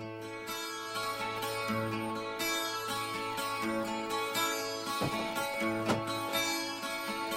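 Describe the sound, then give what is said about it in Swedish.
A new Mix Megapol afterski pop song plays steadily and loudly, with full instrumentation, sustained chords and a driving beat throughout, and no talking over it. “Men vi ska få en helt ny afterski-låt nu av dig.”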